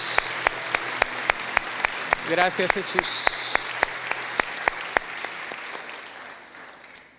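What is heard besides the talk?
audience applause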